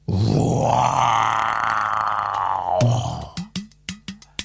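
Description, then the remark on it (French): A jaguar lets out a long, loud, rasping roar lasting about three seconds, then follows with a rhythmic series of six short, coarse grunts, with no other sounds around. “Il veut crier au secours Mais ce sont des rugissements qui sortent.”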